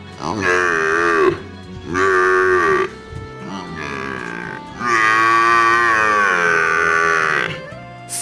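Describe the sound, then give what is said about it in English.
A water buffalo bellows four times, loud: drawn-out, groaning moos with a quieter third call and a final bellow that stretches for several seconds. “Or a wounded water buffalo in heat?”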